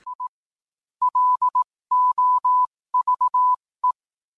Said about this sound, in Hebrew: אה, בשלב ראשון היו מעבירים הודעות טלגרף אה, על ידי קוד מורס.